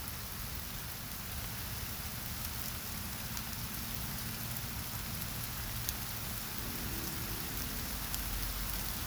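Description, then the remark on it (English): Steady rain patters on a surface, a dense continuous wash of droplets with a few sharper individual drops ticking through, even in loudness, with no voices. “Can you hear the raindrops?”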